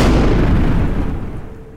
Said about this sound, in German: explodiert die Schule.